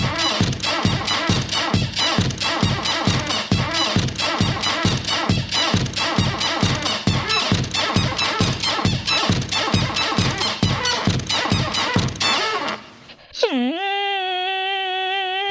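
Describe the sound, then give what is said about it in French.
A love song composed only from recordings of a single creaking door: a steady, loud rhythmic pulse of scraping creaks repeats for about twelve seconds, then gives way to a long, drawn-out pitched creak that bends and holds. “Pour faire ce morceau, le gars, il a enregistré une porte et rien d'autre.”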